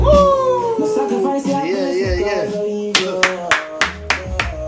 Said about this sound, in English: Clap it up, clap it up.